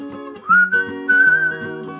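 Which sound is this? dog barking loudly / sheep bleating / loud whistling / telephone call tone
loud whistling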